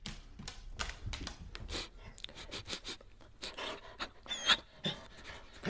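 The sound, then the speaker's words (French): A dog passing by pants and sniffs, quick rhythmic breathy bursts repeating throughout, with a few sharper snuffles toward the end. No one speaks. “C'est un chien qui passe, et elle espère se faire manger.”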